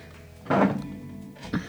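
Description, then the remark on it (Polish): A dull wooden thunk of a chair being bumped or shifted, loud, followed a moment later by a smaller, softer knock against a quiet background. “To było krzesło, jeszcze raz.”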